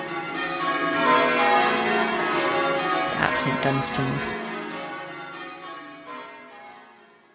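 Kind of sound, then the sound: signal or alarm, church bells ringing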